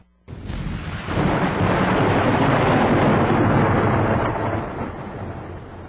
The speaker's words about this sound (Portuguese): O ribombar de um trovão a fez estremecer.